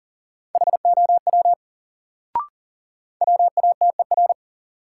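Rapid Morse code at 40 words per minute, sending practice words from a drill of the top 100 words: a steady mid-pitched tone keyed in quick dots and dashes, sent in two bursts separated by a pause with a single short click between them.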